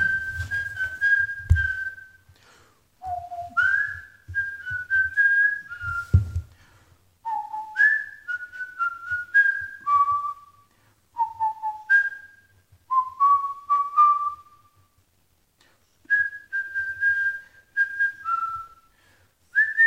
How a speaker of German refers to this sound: Ja, ich pfeife. Ich pfeife einfach mit Kopfhörer.